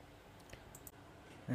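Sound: computer mouse clicking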